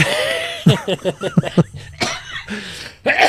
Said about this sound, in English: so you're gonna make me cough.